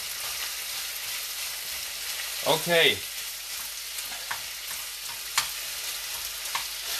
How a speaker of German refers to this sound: Ja, jetzt ähm, ist eigentlich nur noch Stuff anbraten und zusammenrühren. Deswegen können wir jetzt hier einen kleinen Fast Forward machen. Also, du verteilst jetzt mal so das Hähnchen und die Kartoffeln relativ gleichmäßig in der Pfanne,